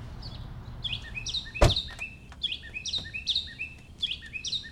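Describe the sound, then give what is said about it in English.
A mockingbird sings in a parking lot, a steady stream of bright, repeated chirping phrases, with a single sharp knock partway through and a faint low rumble underneath. “there is a mockingbird that sometimes comes to the GBH parking lot”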